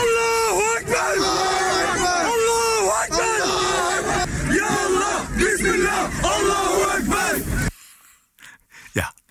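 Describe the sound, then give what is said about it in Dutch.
A large crowd chants loudly in unison outdoors on a grass field, rhythmic shouted phrases rising and falling for several seconds before cutting off abruptly, leaving only faint scattered noise. “dat groepje wordt ook steeds groter, was ook te horen op het Mali-veld. Dat klonk dan zo.”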